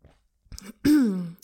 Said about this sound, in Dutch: Ehm, ik ga even een slokje doen.